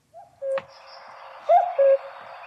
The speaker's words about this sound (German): Das ist der mit Sprachfehler. Da kommt es nämlich dreimal. Dreimal Kuckuck.